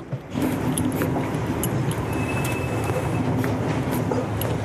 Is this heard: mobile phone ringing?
no